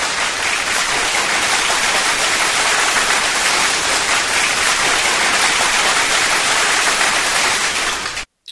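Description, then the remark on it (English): Dense, steady crowd applause fills the whole stretch at high volume, a continuous wash of clapping that cuts off abruptly near the end, with no voices over it. “I deserve a round of applause for that. Um, if I can find the sound effect, that is.”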